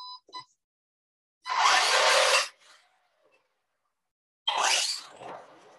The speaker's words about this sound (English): That was me oh, using wow. the remote control to, to move the car. So you can see it's pretty loud, pretty exciting. It really does move.